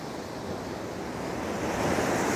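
Steady roar of sea surf washing against rocks at a beach on a sunny day, a broad rushing wash that swells slightly louder toward the end, continuous with no voices.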